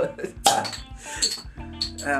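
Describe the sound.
A beer bottle cap pops off with a sharp metallic snap and a brief ringing tone, followed by faint glassy clinks while people murmur and talk quietly.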